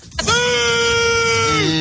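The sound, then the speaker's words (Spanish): A single loud, drawn-out celebratory goal scream by someone watching a match at home when Cristiano Ronaldo scores, held at a steady pitch for well over a second before dropping slightly at the end, alone. “Si Cristiano, esto es otra cláusula, si Cristiano Ronaldo mete un gol, todos en la casa, quienes estén viendo ese día el partido, están obligados a gritar.”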